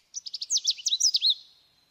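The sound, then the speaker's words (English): A yellow Canada warbler sings one quick, bright phrase: a few crisp opening chips running into a jumbled, tumbling warble, clear, with no other sounds around it. “Back to that yellow Canada warbler.”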